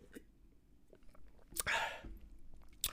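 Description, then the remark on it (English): A quiet slurp as someone takes a quick sip of a drink, a short airy burst framed by soft mouth clicks, with no talking. “Take a sip of this moon moon.”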